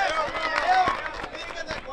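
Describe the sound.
Steady, dense applause from an audience, a continuous wash of clapping mixed with cheering voices and shouts that stays fairly loud throughout.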